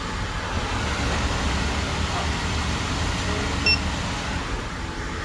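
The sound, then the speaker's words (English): A single short, high electronic beep as a phone payment app is scanned at a Starbucks counter, cutting briefly through steady background rumble and ambient noise. “That was the sound of them scanning the app.”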